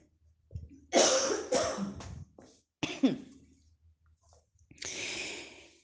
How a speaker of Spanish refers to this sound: Voy a toser otra vez, perdonen.